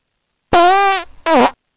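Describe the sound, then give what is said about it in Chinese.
Two loud, buzzy fart sounds: a long sustained one lasting about half a second, then a shorter sputtering one after a brief pause, with no talking. “哦，嗯，好臭呀！”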